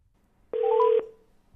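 A single telephone keypad tone sounds once, clear, lasting about half a second before cutting off into near silence, with no voices present, while dialing to place a call to a reporter.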